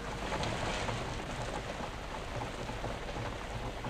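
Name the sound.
heavy rain with thunder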